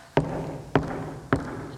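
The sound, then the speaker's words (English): Three evenly spaced knocks on a door, each a sharp, solid thud with a short ring, over a faint steady hum in the background. “If you hear the knock, open the door, let Jesus in.”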